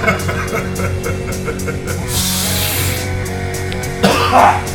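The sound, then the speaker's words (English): A small cough: a soft breathy burst followed a moment later by a second short, rough cough, with a low background hum and no talking. “they do a little cough.”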